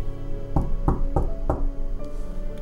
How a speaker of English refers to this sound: Hope looks for a key to open the door, but he can't see anything in this dark, so he goes back to knocking. Hope never gives up. Hope still looks for that door to open and give him shelter. Hope knocks.